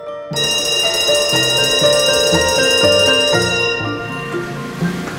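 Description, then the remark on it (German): A loud electric school bell, rung as a homeschool bell, rings continuously for about five seconds, a bright, metallic, rattling clang rich in high overtones, starting abruptly and mellowing slightly toward the end. “Und jetzt läute ich die Schulglocke, nämlich die Homeschool-Glocke.”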